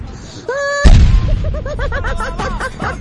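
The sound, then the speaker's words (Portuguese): A loud explosion sound effect: a short whistling tone leads into one heavy, booming blast, followed by a rapid series of chirping, warbling tones that trail off. “A explosão foi tão forte”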